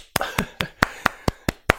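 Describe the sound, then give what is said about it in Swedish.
A brief round of about seven sharp hand claps in a steady, even rhythm, each one crisp and bright, with no voices alongside, given as a small applause for an ice hockey prediction. “ja, den, den är nästan värd en liten applåd.”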